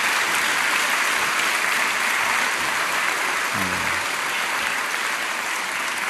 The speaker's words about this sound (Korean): 우리 온사랑 합창단 큰 박수로 축복해 주십시오. 감사합니다.